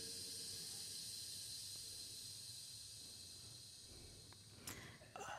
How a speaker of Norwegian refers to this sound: Det blir søvnig. Litt sånn bølgesus.